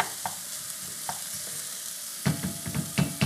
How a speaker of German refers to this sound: Und ich rühre, rühre, rühre. So. Das lassen wir jetzt gleich einmal hier ein bisschen anschwitzen, an, andünsten, anbraten.